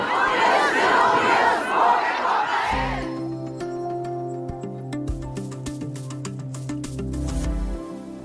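A large crowd at a demonstration chants and shouts together, loud, for about three seconds before cutting abruptly to steady instrumental music that carries on to the end.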